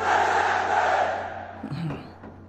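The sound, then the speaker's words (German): A large crowd at a commemoration in Rome, standing in a square military-style formation with right arms raised in the Roman salute, roars the word 'Presente' together in one loud, sustained unison shout that slowly fades, leaving a few scattered voices murmuring afterward. “Sie bilden ein Quadrat, eine Art militärische Formation heben den rechten Arm in die Höhe, zeigen den Faschistenkuss, den man hier Saluto Romano nennt, und schreien laut und vernehmlich Präsente.”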